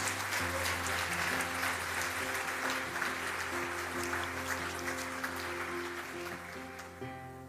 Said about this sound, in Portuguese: Você pode aplaudir Jesus por essa palavra?